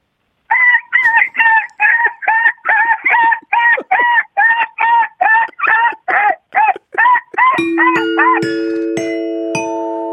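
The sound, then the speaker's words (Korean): A contestant on a show imitates a baby puppy crying sadly: a quick, steady series of about sixteen short, high, whiny yelps, loud, followed by a bright ringing 'ding-dong-dang' success chime of rising tones. “자, 새끼 강아지가 서럽게 우는 소리 들어보겠습니다.”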